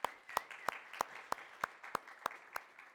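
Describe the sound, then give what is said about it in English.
An audience applauds God for the 11 baptisms of the past year, with sharp, evenly spaced claps standing out in a steady rhythm over a softer wash of crowd clapping. No one speaks. “Will you give God a round of applause for that?”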